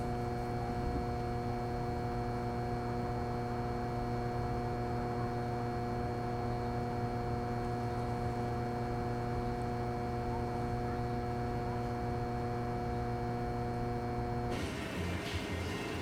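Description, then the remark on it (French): A steady, droning electrical transformer hum with a buzzy harmonic tone, continuous and unchanging for about fourteen seconds with no talking, then it abruptly shifts and drops away near the end. “Un transformateur qui grogne tout seul dans son coin.”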